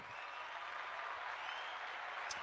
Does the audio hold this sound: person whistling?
no